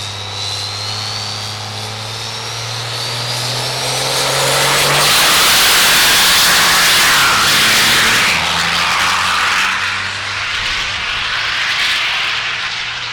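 Andrew Morrison's mechanical 12-valve regular cab diesel drag truck revs up and launches down the track pulling an 11,500-pound trailer, its deep roar swelling into a loud, sustained blast of engine noise that holds for several seconds before easing slightly.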